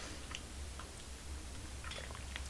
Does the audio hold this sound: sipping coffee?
yes